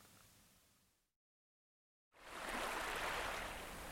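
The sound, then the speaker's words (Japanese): Ocean waves on a beach in Okinawa: a soft, hissing wash of surf fades into a second of silence, then a louder rush of breaking water swells up and holds. No voices. “一月後長友は沖縄のビーチにいた香川真司も一緒だ傷ついた心を波音が洗う”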